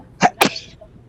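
A single sneeze, a sharp two-part burst with a quick intake and explosive release, then a faint breathy tail fading into quiet.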